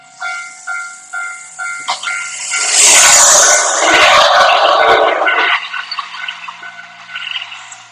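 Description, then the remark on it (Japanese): A railroad crossing bell clangs in a steady repeating rhythm, then an electric train roars past in a loud, rushing wash of noise before the bell continues faintly as it fades. “で、全然電車来やへんな。カンカン言うてから来た。”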